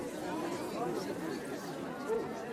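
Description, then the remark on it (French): Low, indistinct murmuring from many people in a quiet hall at a chess match between Kasparov and a computer, people talking about Kasparov; a steady hum of overlapping voices with no single words standing out. “Oh, j'entends des gens qui parlent d'un monsieur.”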